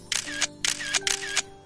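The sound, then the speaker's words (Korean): Three crisp camera shutter clicks, taking photos of nearly new ribbon cat goods to sell on a secondhand market, each a quick double snap of the mechanism, fire in a steady rhythm about half a second apart, clear over a faint hum. “사진을 찍었고 거의 새 상품 판매합니다.”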